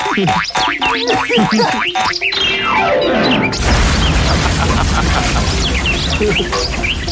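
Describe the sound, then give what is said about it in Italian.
Cartoon sound effects: a rising boing and whistling descending slide as Grug runs and launches himself into the void flapping his arms, then a loud crash as he slams into the ground, followed by a dense, noisy rumble of debris. “Grug si schianta al suolo facendosi un male della Madonna.”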